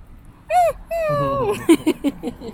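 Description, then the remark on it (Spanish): A dog whines in high, drawn-out cries, first a short rising-falling whimper, then a longer sliding whine, ending in a few brief clipped yelps, fairly loud. “De todo chilla.”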